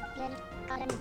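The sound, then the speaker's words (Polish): A video game heart pickup sound effect: a quick, bright electronic chime that flares up near the end, over a steady bed of tonal game music. “Tutaj jak podnosimy serce”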